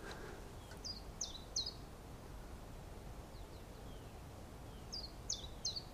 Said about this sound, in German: Die, also wir gehen jetzt durch die Aulandschaft, wir hören jetzt, das ist übrigens eine Kohlmeise.